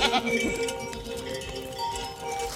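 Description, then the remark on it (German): A large goat, number 22, gives a short, wavering bleat near the start, fairly loud, followed by a steady murmur of barn noise with faint shuffling and hoof-like clatter. “ist aber auch eine schöne große Ziege, die 22.”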